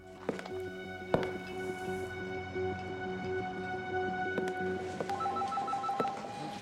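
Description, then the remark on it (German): An old-style 1970s telephone bell rings in a steady, buzzing pattern, moderately loud, with a few sharp clicks and knocks scattered across it. No one speaks. “Also die ganzen 70er, 80er Jahre Telefone ist nach wie vor immer ein Dauerbrenner.”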